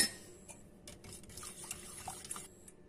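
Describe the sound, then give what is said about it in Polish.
Stirring ingredients, including fresh ginger flakes and cinnamon, in a pot for golden milk: a steady run of soft scraping and swishing strokes with small clinks, lasting a couple of seconds with no one talking. “Yy, możecie też dodać kartamon i po prostu to, te wszystkie składniki trzeba wymieszać”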